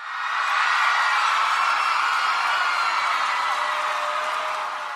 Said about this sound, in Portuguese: Essa é a hora que a produção coloca aquelas palmas, né?